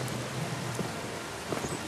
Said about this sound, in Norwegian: Regn, sølepytter og vann og høyblokker.